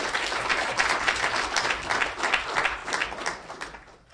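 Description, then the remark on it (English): Audience applause for a forum speaker at Harvard Law School, a dense, steady wash of many hands clapping at once, sustained for several seconds before tapering off slightly at the end. “for one final time let's hear it for our forum speaker thank you”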